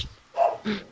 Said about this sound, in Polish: Już się oburzył. oburzył się. To mój pies, nie proszę go tak nie nazywać.